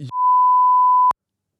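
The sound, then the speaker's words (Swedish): A loud, steady censor bleep covering a name, a pure tone held for about a second, cutting in right after a brief burst of speech and stopping abruptly into silence. “sätter du bi på det eller?”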